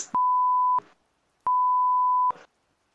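Two loud censorship bleeps, each a steady pure tone lasting under a second with a sharp click at start and end, separated by a short silence. No one speaks.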